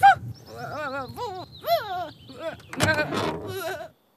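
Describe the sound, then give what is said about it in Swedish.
The dog Pipsa imitates a sheep with a string of quavering, bleat-like cries, fairly loud, ending in a rougher, noisier burst before stopping. “Låt som ett får, Pipsa!”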